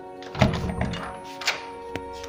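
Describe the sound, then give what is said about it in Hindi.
A door being opened at three in the night for a proctor's guard: a dull thunk with a brief rattle, then a softer knock and a sharp click of the latch, over a steady low hum. “जी कहिए मैंने दरवाज़ा खोलते पूछा”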